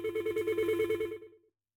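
A telephone ringing as a caller's call to the studio is put through: a rapid, warbling electronic ring with steady pulsing tones, about a second and a half long, then cutting off into silence. No talking.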